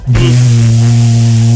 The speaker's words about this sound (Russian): У него бойлер дома шумит.